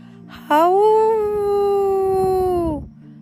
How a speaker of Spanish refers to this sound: ¡Lobos! chilló. ¡Lobos! ¡Lobos de verdad!